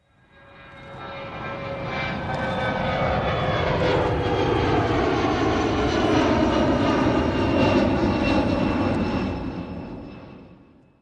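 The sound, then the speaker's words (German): A small jet-like aircraft engine roars steadily for about ten seconds, fading in and out with a broad rumbling hiss and faint whining tones, loud, with no voices. “Das war nicht der Privatflieger von Friedrich Merz und auch nicht der Jet von Franz Josef Strauß, den du ja schon erwähnt hast, aber sowas ähnliches”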